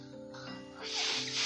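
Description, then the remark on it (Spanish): A child blows hard in two forceful, breathy gusts, imitating the wolf blowing down a pig's house in a told story, a loud rushing hiss rising over a faint steady hum, with no talking. “El hermano pequeño estaba asustado y de repente el lobo sopló muy fuerte. A ver cómo sopla.”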